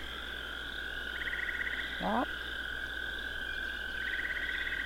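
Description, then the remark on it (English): A steady chorus of toads trills and croaks in the background, with pulsed bursts rising now and then over a continuous drone, for a giant toad in a tabletop role-playing game; one person briefly speaks partway through. “Uh, hoping a toad is not very bright.”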